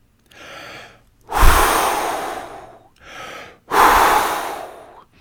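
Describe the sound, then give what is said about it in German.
A person takes two breaths in, each followed by a long, forceful, breathy blow of air, the second as strong as the first; no talking. “Vorsichtig wickelt das Erdmännchen das Horn mit den Blättern ein, dann pustet es so kräftig es kann.”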